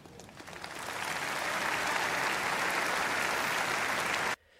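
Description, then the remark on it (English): A crowd applauds steadily, the clapping building slightly and holding strong for about four seconds before cutting off abruptly. No one speaks over it. “So you know, if you're keeping track of the crowd reaction, very positive up to this point.”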